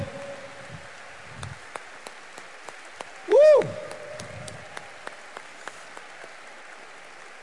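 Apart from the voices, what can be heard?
audience applause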